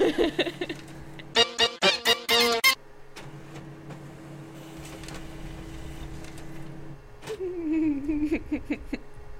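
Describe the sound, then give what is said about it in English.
A very large printer works, with a quick burst of rhythmic mechanical clatters followed by a steady whirring and humming as the pages feed through, ending in a rising motor whine. “Just keep printing. Just just keep gonna spit out by this little baby printer.”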